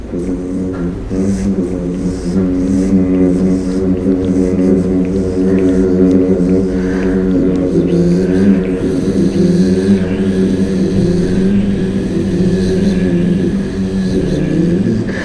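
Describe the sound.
A person hums a steady, droning buzz, imitating insects swarming around a tree, held continuously at an even loudness for about fifteen seconds with only slight wavering in pitch.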